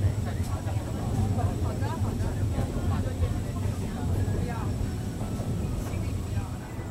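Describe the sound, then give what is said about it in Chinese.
A forest railway train pulls slowly into a station in the Alishan Forest Recreation Area, its low, steady rumble continuous throughout, with indistinct voices murmuring over the engine noise. “现在我们在阿里山森林游乐区里面，看着火车缓缓进站。”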